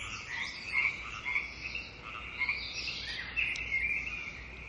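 A dense chorus of frogs croaking continuously, with overlapping calls layered into a steady, fairly loud din and a few sharper croaks standing out; no one speaks.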